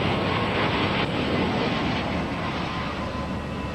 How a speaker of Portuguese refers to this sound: É junho de 88 e o Abziner Show está acontecendo no aeroporto de Mulhouse, perto da fronteira da França com a Suíça e a Alemanha. Os milhares de espectadores olham para cima enquanto um A320 desce.